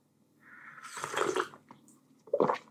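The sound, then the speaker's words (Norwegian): Wet slurping of coffee at home: a drawn-out sip with a rising airy rush, followed a moment later by a shorter, louder slurp, both fairly soft with no talking. “Så dere får bare unnskylde slurpelyder og sånn, altså, men jeg må drikke litt kaffe.”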